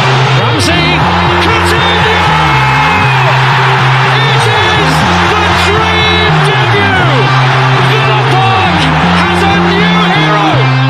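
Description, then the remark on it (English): A loud stadium crowd roars and cheers continuously after a goal by Danny Ings, a dense wall of yelling and whooping with a low, rising and falling chant-like drone underneath, sustained without a break. “that's a big clap, mate.”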